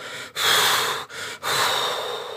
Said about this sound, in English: Breathe out. Trust me. Breathe out and then it'd go,